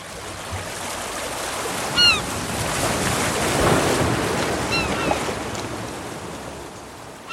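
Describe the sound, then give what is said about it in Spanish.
Steady ocean surf washes and rolls onto the shore, swelling midway, with wind noise and a couple of brief high bird calls above the roar. “Dejar que las olas nos mojaran las puntas de los pies.”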